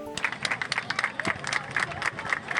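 A crowd of people on a beach in Praia Grande, on the São Paulo coast, clapping in steady, rhythmic unison, a technique used when a child gets lost, the claps dense and moderately loud with a faint wash of background murmur.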